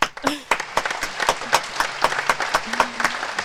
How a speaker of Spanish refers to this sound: Vamos a darle un aplauso a la diputada Carla Carrizo, por favor.